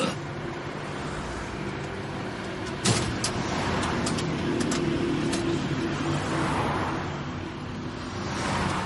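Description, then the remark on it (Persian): A car engine hums steadily throughout, a continuous rumble with road noise, broken by a few brief clicks and knocks partway through. No one speaks. “با این ماشین برو پایین من ببینم داستان چیه”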